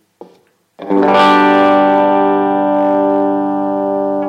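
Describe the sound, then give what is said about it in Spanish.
A bass note rings out through an amplifier with a thick, saturated tone, sustaining loudly for several seconds after a short muted pluck. No one speaks. “Si quito el amplificador. se, nos baja un poco de volumen, pero es poner el amplificador y...”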